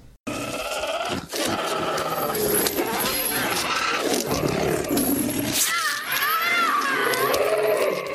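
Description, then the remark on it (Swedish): In a film scene, a woman lets out loud, drawn-out pained scream-moans as a beast claws her back in a gladiator arena, her voice wavering and strained over a dense, rough, roaring background that fills the whole stretch without pause. “Hör du det skrikstönet?”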